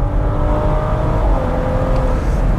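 A Bentley Bentayga Speed engine revving with a deep, rumbling roar and a steady droning hum, holding loud and even throughout with a slight shift in pitch midway, no voices.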